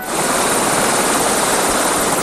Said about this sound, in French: L'hélicoptère s'est approché,